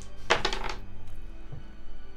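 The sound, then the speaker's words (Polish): Dice rolled for a Keep It Together check rattle and clatter in a quick burst of hard little clicks lasting about half a second, totalling nine, then the sound drops away to a quiet background hum. “Rzucam na Keep It Together.”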